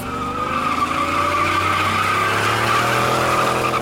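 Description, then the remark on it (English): A Chevy accelerates hard and speeds off with a loud, sustained squeal of tires after its occupants yelled obscenities, the engine roaring for a few seconds without any voices. “The occupants of the car yelled several obscenities and then sped off.”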